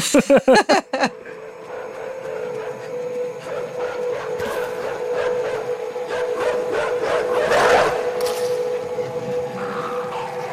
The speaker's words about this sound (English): By the way, do we have sound effects of the dog eating the kid? I do have that.